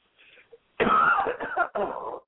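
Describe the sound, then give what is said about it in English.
A soft breathy lead-in followed by a few loud coughs in quick succession, harsh and raspy, with a brief gap between the last two bursts. “Just a second, I got a cough.”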